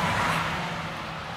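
A local bus that serves the area drives past with a steady engine drone and broad road noise that fades slightly toward the end. No one speaks.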